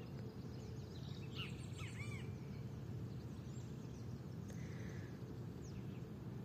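Several birds chirp and trill over a steady low rumble of outdoor ambience, with overlapping calls scattered throughout and no one speaking.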